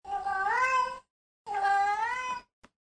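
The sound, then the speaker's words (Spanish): Two long, drawn-out cat meows from a recording meant to make a cat come, separated by a short pause, loud, with bright rising and falling tones and no talking. “Tiene uno que se llama Sonido para que tu gato venga.”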